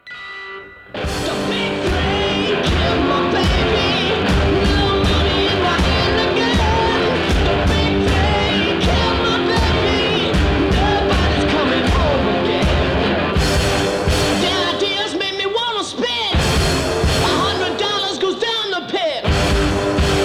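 A loud, raw garage rock song plays close and full, with pounding drums, gritty guitar and a singing voice, driving steadily throughout with a brief dropout near the end.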